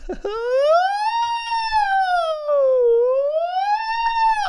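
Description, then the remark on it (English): A voice imitates a wailing siren, a loud, sustained woo that rises, dips and climbs again across several seconds, alone with no other talk. “There's an ambulance coming.”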